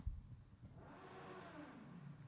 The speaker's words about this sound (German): Wow, was war das denn? War wahrscheinlich ein Motorrad, aber hätte auch eine Kettensäge sein können. Man weiß es nicht.